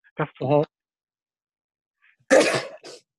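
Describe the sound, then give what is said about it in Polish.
A loud sneeze into the elbow: a short voiced intake and buildup, a brief pause, then a sharp, explosive burst with a small trailing sound. “No, będę kichałem w łokieć, jakby się ktoś obawiał.”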